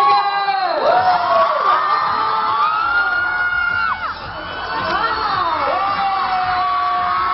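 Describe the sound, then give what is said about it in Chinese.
A large crowd screams without pause as a band's leader appears as a brand spokesperson at a commercial event in Beijing, many high-pitched shrieks overlapping, swelling and dipping but never stopping, loud and sustained from start to finish. “昨天 … 队长…以代言人身份现身北京出席商业活动，一袭红白运动装的他，一出场电影的全场尖叫不断。”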